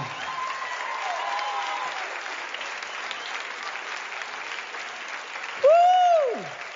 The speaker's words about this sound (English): to the roaring crowd that you would have experienced that very uh, day on stage. So let's give it a listen to now.